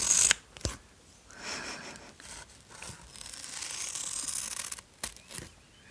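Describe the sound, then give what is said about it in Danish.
Scissors slicing through crisp taffeta fabric, a dry, crackling rasp that swells over several seconds, with a few sharp snips at the start and end. No voices. “hvordan det lyder at klippe i stof”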